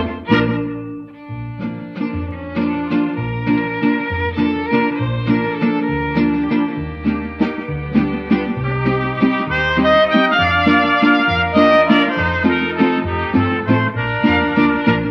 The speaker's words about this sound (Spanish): Otras veces solo hay gritos y chiflitos se escucha el cilindrero trovador.